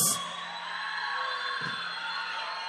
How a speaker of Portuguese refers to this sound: Uma salva de palmas.